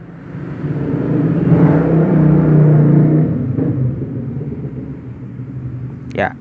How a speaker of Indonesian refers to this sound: sorry agak berisik karena di pinggir jalan ya entah apa motivasi orang-orang yang punya motor dengan knalpot bisik ya.